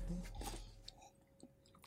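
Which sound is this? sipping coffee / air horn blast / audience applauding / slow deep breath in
sipping coffee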